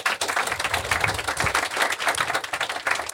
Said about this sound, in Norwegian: Først ut er eh, kommentator Hilde Øvrebekk fra Stavanger Aftenblad. Velkommen. En liten applaus for Hilde.